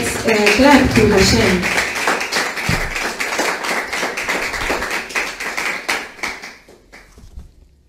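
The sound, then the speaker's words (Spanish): A crowd at a religious service applauds for Hashem with dense, rapid clapping that holds steady and then thins out and fades over several seconds, with some voices mixed in at the start. “Bueno, vamos a darle un, un aplauso a Hashem.”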